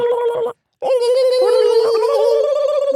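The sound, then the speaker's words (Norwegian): A person vocally imitates a turkey, starting with a short burst, then a brief pause and a longer, loud, wavering gobble-like warble. “Få høre din kalkunparodi.”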